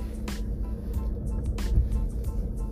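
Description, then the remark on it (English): The speaker's car reversing: a steady low engine rumble with a few brief hissing bursts over it, and no clear talking. “I am actually reversing, but let's rewind a little.”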